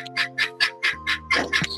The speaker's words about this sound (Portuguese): Gente, que barulho é esse? É, que é isso? é uma galinha? É verdade, é estadinho.